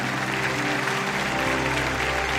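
An audience applauds in celebration of the King (God), a dense wash of clapping hands that stays loud and even throughout, with a faint low hum underneath and no clear voices.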